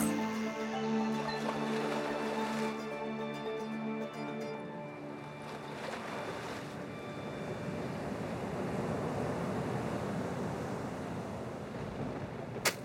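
Steady, roaring wind and crashing sea surf as the weather grows rougher build into a dense, continuous wash of noise, taking over as a soft tonal hum fades out during the first few seconds.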